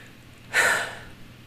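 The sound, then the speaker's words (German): A single deep, deliberate breath in and out, a short airy rush that swells quickly and then tapers off, with quiet around it and no talking. “So, das habe ich jetzt auch mal einmal gemacht, weil wir atmen meistens viel zu flach und viel zu kurz.”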